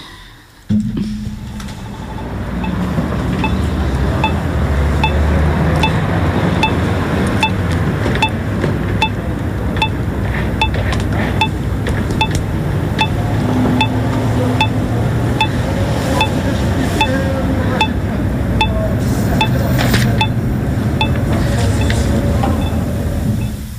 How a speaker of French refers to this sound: C'est un, son euh, qui permet de savoir si le feu est rouge ou vert.